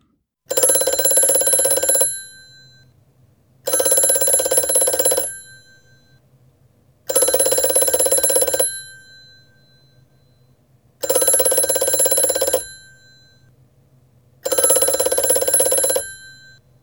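A telephone rings unanswered in five even bursts of roughly a second and a half each, separated by short pauses, with a bright, buzzy, loud tone and a faint low hum between rings.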